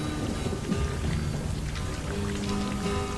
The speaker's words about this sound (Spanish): Llovía tanto que se habían formado ríos en las banquetas.